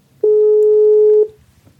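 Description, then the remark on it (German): A single telephone ringing tone as an arranged phone call connects: one steady, mid-pitched electronic beep lasting about a second, loud, then fading into faint background hum. “Ich bin mit ihr für ein Telefonat verabredet.”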